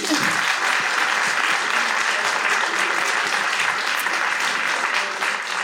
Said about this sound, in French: Venez. On les applaudit.